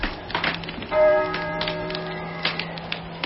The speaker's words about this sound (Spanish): ¿Oyes? ¿Oyes? Las campanas doblan. La oración ha sonado en San Juan del Duero.